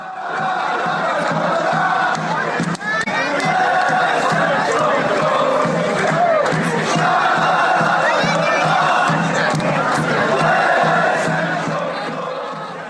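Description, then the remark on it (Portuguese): A stadium crowd of Central Coast football supporters roars and cheers continuously, a loud dense wall of voices with shouts and whistles rising over the sustained din. “No que depender da torcida do Central Coast, isso vai acontecer.”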